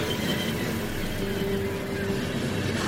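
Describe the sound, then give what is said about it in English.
A train of grey steel carriages passes through a station platform without stopping, with a steady, loud rumbling roar that never lets up, and a faint humming tone rises midway through. No voices can be heard. “And now a train is rushing past me, carriage after carriage of grey steel boxes, and looking at it was making me feel dizzy.”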